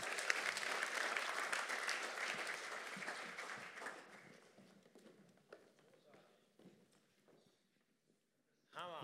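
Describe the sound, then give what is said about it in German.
A large audience at the CLW international church applauds loudly for the people at the front and all 400 staff members, dense clapping that gradually thins out and fades over several seconds, followed by a brief burst of sound near the end. “Und ich bitte euch, gebt einen Applaus diesen tollen Menschen hier vorne und allen 400.”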